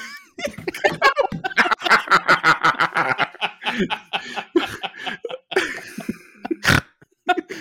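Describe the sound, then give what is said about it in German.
Loud vocal grunting from one person: a rapid series of short, rough bursts, mixed with snorting laughter and chuckles, then a few scattered louder grunts toward the end. “ja, da habe ich auch noch gegrunzt.”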